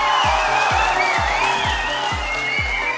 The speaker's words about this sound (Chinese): 我可爱的听众朋友们有没有想我呢？让我听到你们的掌声和欢呼声。